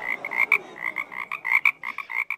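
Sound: frog croaking sound effect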